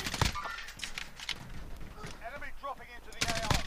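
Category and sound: sound effect, video game gunfire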